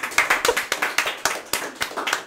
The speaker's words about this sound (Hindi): okay सीधी बात भाई सबकी तालियां चाहिए इस बात पे भाई